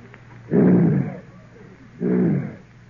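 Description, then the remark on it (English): A person imitates a lion's roar with two deep, rumbling growls, each lasting about half a second to a second, separated by a short pause and fairly loud. “Oh, oh, a lion. Quiet, folks. One lion.”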